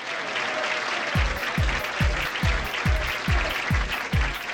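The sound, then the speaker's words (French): Dense, steady applause from an audience as boxer Jake LaMotta is introduced, in the film Raging Bull, fills the whole clip, joined after about a second by a regular, deep pounding beat thumping roughly twice per second underneath. “Je vous présente le plus grand challenger pour le titre mondial de Walter, le frappeur du Bronx, le taureau du Bronx, que l'on applaudit bien fort, Jake Lamotta, mesdames et messieurs.”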